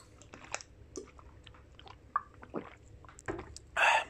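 Quiet mouth and throat sounds of someone drinking water: small wet clicks and gulps spread over a few seconds, ending in a short breathy exhale or sigh.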